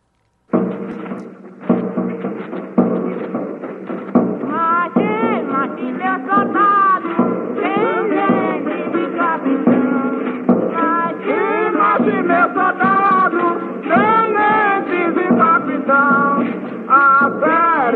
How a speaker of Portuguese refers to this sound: De Recife, vamos ouvir outro Bumba Meu Boi que fala do momento de morte do boi.